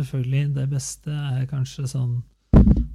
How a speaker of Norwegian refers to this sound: Oi, stanga jeg borti mikrofonen. Beklager det.